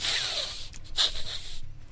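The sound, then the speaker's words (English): A series of quick, breathy sniffs from a female worgen character in a video game, repeating over and over because of a bug. The sniffs are loud, with short airy bursts of hiss and no talking. “General chat was pretty much this stream of people going, "Does anybody hear a lot of sniffing?"”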